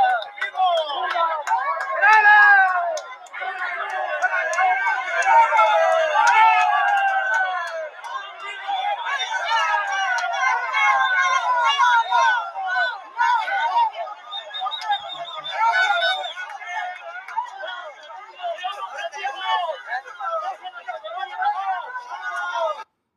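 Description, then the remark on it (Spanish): A crowd of women shouting "no, no, no" over one another as they surround army trucks to prevent a confrontation, their high, strained voices overlapping in a continuous, agitated clamor that stays loud for the whole stretch with no pauses. “Las mujeres que gritaban no, no, no, rodeaban las camionetas del ejército para evitar un enfrentamiento.”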